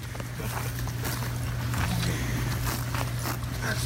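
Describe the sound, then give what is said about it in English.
Horse hooves thud along a dirt trail during a trail ride, in a loose, steady walking rhythm, over a constant low rumble of outdoor background noise. “Now, she took a lot of, uh, well, let's just say, uh, a lot of teasing on this trail ride because I told her my most stubborn rider is on the most stubborn horse.”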